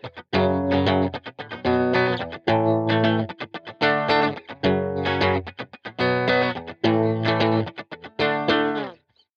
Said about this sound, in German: Dieselben vier Akkorde, klingen schon ganz anders. Auch wenn es nur vier Power Chords sind, deren Griff man relativ schnell lernen kann, spielt es doch eine erheblichere Rolle, wie du diese Akkorde spielst.